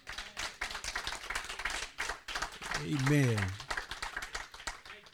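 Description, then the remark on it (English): An audience claps steadily in a dense, continuous patter as a hand clap offering to Jesus, and a single voice rises over the clapping midway with a drawn-out call before the applause carries on. “If he's all of that to you, why don't you give Jesus a hand clap offering?”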